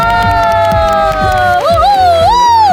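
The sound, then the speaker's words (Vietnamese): A loud crowd cheers, whoops and claps at the host's call for another big, long round of applause, with high sustained shouts rising and bending in pitch over a dense wash of audience noise. “Cảm ơn mọi người rất nhiều à, Một tràng pháo tay nữa thật lớn thật dài đúng không ạ”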